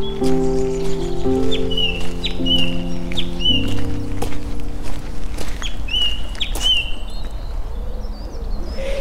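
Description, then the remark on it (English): A song thrush sings bright, whistled phrases repeated in quick succession, clear, over a steady low hum and faint rustling outdoors in Penwood just after 7am. “It's a song thrush.”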